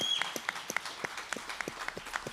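Studio applause from a small group: a soft, scattered run of sharp handclaps in an uneven rhythm, fairly faint overall, with a brief high whistle-like tone at the start and no talking.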